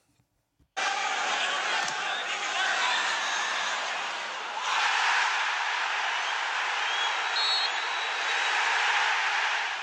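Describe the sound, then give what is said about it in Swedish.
A loud, dense roar from a large stadium crowd at a football match bursts in after a brief silence and holds steady, swelling even louder midway through and staying intense to the end. “Det första vrålet som du hör, ja.”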